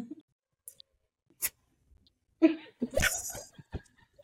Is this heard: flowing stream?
no